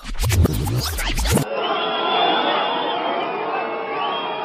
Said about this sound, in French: Ambiance de concert pour Jacques Chirac au printemps de Bourges. Mais le problème en musique, c'est que les sifflets peuvent s'interpréter dans un sens ou dans un autre.